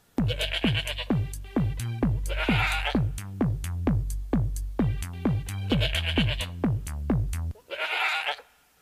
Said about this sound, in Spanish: Tengo otro que es de un chivo. De un chivo, voy. Ese me gusta más. A ver. Vamos a oír el chivo, el chivo y la changa.